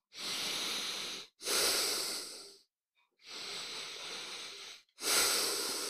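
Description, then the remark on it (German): Slow, steady breathing through the open left nostril, the right nostril closed with the right index finger. Four long airy breaths alternate inhale and exhale, each lasting over a second with short silent pauses between, nasal and hissy in tone. “Und dann atmen wir durch das geöffnete linke Nasenloch ein und aus. Immer ein und aus.”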